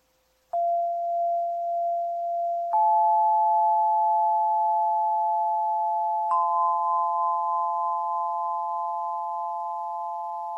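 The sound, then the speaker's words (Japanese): Crystal bowls ring with pure, sustained tones: one is struck, then a second and third join a few seconds apart, each with a soft strike before its hum layers into a steady, shimmering chord. “復帰しましたクリスタルの音色のご紹介”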